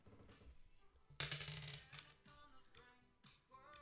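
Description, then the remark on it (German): Dice are rolled, landing on a six: a sudden loud rattling clatter lasting under a second, followed by a few quieter clicks as they settle, with faint background sound underneath. “für Würfeln?”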